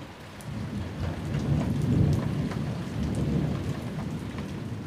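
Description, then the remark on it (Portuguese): Low, rolling thunder rumbles through steady heavy rain, swelling to a peak around the middle before easing slightly, with scattered raindrop patter across the top and no voices. “É o barulho desses, desses trovão, tudo.”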